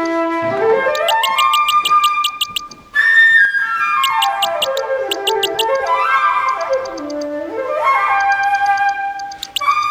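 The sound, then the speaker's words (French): A flute plays the part of a bird: a lively, bird-like melody of swooping rising and falling lines, broken by bursts of rapid high trills and chirps. It is loud and steady, with a brief pause near three seconds and no talking. “The bird will be played by the flute, like this.”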